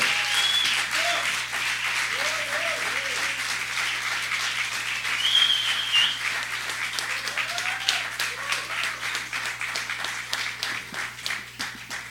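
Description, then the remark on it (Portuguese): Sustained applause from a sizable audience for an introduced guest, dense and steady clapping, with a few faint voices and whoops mixed in before it gradually thins toward the end. “Uma salva de palmas”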